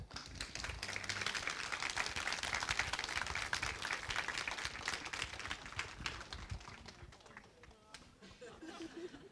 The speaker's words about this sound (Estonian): nii et äh, eeskujud istuvadki siin meie vastas kõik. aplaus